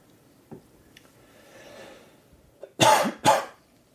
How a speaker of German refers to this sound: Was war das denn im Hintergrund? Gute Frage. Ja, war ein kleiner Huster drin. Ne? Ähm, oh, das klang aber ein bisschen wie ein, wie ein, wie ein zuckerkrankes Meerschweinchen.